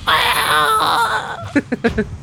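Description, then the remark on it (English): A voice imitates a giant rat's death scream as an arrow plunges into it: a long, high, wavering shriek lasting over a second, trailing into several short, sharp squeals. “drawing back an arrow, lets it fly to the very edge of her vision, and you basically see this arrow plunge deep into this giant rat it tumbles over, leaving your vision, and you hear just a death scream.”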